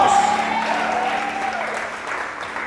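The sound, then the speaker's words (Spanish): An audience applauds steadily, a dense wash of clapping hands that holds at a fairly loud, even level throughout, with a faint sustained tone running underneath. “Ese aplauso tiene que salir de estas cuatro paredes, vamos.”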